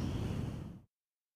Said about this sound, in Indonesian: kita latihan duduk senyaman mungkin dipejamkan matanya ambil nafas panjang dari hidung